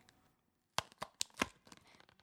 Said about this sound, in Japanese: さあ気になるのがお味ですよ早速開封してみましょうかね